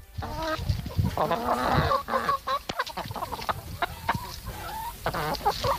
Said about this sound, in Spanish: Sí, y además ahora te traduzco porque yo sé cacareo.